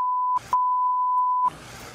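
A steady, loud censorship bleep tone sounds twice, a short burst then a longer one of about a second, with brief fragments of a voice between them and afterward, bleeping out the swear word "fuck" on the MTV show The Osbournes.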